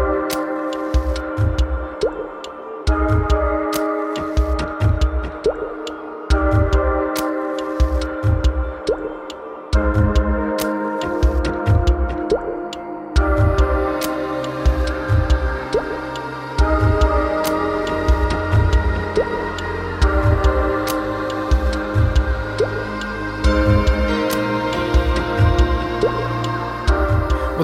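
An instrumental electronic track with a steady, punchy low beat and sustained synth chords that shift every few seconds, building into a denser, brighter texture partway through. No voices.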